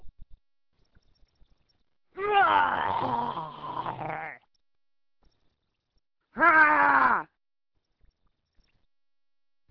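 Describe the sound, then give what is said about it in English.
A voice imitates a guttural goblin roar in two bursts: a long, rough, growling one followed after a pause by a shorter strained roar, both loud with no talking. “only want to sound like a goblin.”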